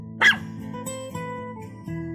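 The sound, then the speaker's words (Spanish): A small female dog gives a single sharp, high-pitched bark near the start, heard over a steady, low musical background that continues after it. “Esta es la historia de Elfie. La mejor perrita del mundo.”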